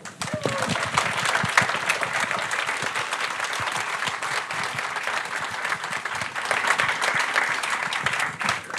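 A sustained round of audience applause for the panelists at a panel discussion, dense and steady throughout, with many hands clapping at once and a few faint voices mixed into the crowd noise.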